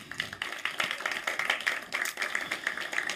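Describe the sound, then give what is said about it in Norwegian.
A crowd applauds the worship team at a Sunday service of Tønsberg frikirke at Brygga in Tønsberg, many hands clapping in a dense, continuous patter at moderate volume, with no voices over it. “Gi en klapp til lovsangsteamet.”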